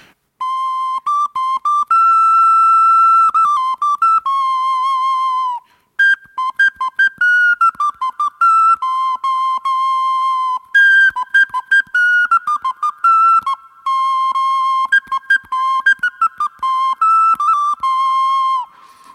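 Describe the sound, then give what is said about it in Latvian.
A homemade gourd whistle plays a lively folk tune, bright pure tones around one register with quick repeated notes and short pauses between phrases, fairly loud with no voices. “Nu, skan diezgan tradicionāli, bet uh, tieši tas izpildījums, tas, ka viņš ir no vaurieksta, ir tāds piesitiens.”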